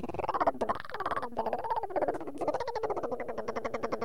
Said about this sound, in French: Si vous avez des tourterelles, des toutes belles tourterelles qui vous réveillent le matin,